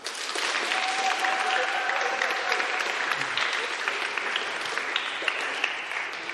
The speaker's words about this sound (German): Aber jetzt zuerst, Dankeschön vielmals. Ein Applaus ist das wert, oder?